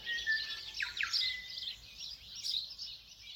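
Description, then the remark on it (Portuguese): Several birds sing and chirp together on the lakeshore at the village of Lake Coleridge, high bright tweets and trills overlapping continuously in a steady outdoor chorus, moderately loud with no voices present. “Vocês devem estar tá ouvindo aí no fundo os passarinhos cantando.”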